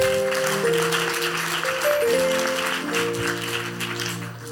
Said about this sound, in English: Clap your hands for that, please.